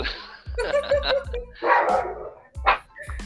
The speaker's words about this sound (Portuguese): Hoje os cachorros são impossíveis, viu?